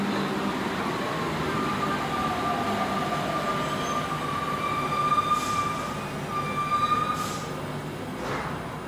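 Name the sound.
metro train running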